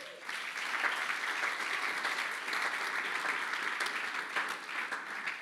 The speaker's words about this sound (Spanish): Dáselo fuertes aplausos.